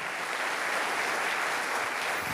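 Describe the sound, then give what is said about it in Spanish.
Steady applause from a crowd, a dense wash of many hands clapping at an even loudness throughout, with no voices rising above it. “Alguien tiene que aplaudir más que eso si crees que la esperanza nunca defrauda.”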